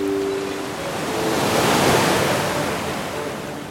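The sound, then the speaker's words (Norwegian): Water sloshes and rushes steadily against the hull of a 22-foot white sailboat gliding through the water of the Kristianiafjorden on a late-summer day, a broad wash that swells to a peak midway and then eases slightly, with a faint low tone early on and no voices. “Turen startet, og båten gled staselig gjennom vannet.”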